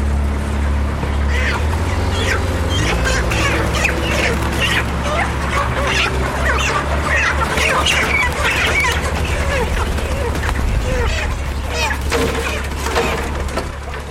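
A dense crowd of chickens clucks and squawks nonstop and loud, layered over a steady low mechanical rumble like an idling engine.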